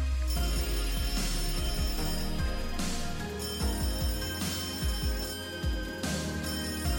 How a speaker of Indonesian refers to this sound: Tetapi telepon terus berdering.